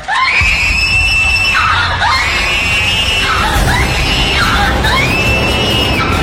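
A woman screams loudly over and over, several long, high-pitched shrieks rising and falling in quick succession, close and piercing, with no talking.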